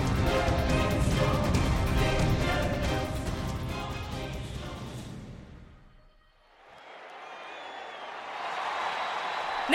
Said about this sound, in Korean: 관중들이 또다시 열광합니다.